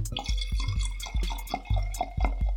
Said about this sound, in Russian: поэтому я сказала ему сидеть тихо, и мы будем пить. Так что если будут какие-то булькающие звуки, не удивляйтесь.